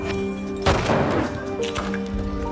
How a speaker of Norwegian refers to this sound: Og han kan ikke kjøre ned dem så da må jeg skyte. Så høres lyden av pistolskudd.